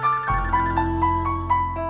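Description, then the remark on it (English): A telephone rings with an electronic, melodic tone, pulsing in a steady quick rhythm over a sustained low hum. The ringing is clear and fairly loud, with no talking. “That ringing sound is not that number.”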